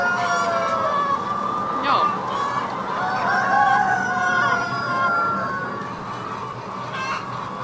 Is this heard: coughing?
no